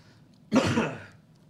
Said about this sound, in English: Let me clear my throat